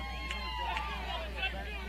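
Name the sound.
baseball crowd cheering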